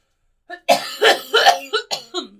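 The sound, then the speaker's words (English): A fairly loud burst of five or six rapid coughs in quick succession, each a short harsh rasp, with a voiced throaty catch at the start and end. “I coughed.”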